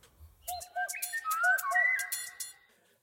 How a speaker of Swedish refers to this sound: Nu tar vi sparvugglan.